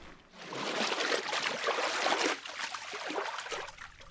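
Water rushes and burbles steadily in a stream, a continuous hissing flow that swells slightly then eases off, with no voices.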